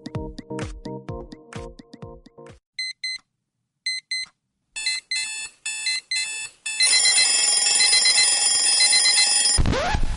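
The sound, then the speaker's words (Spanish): A string of alarm clock sounds, shifting from chiming tones to rapid high-pitched beeping, then a loud, continuous electronic ringing that cuts off with a sharp whoosh. No voices. “Sabemos lo mucho que odias este sonido. Nosotros también. Mejor inicia tu día con Wake Coupé.”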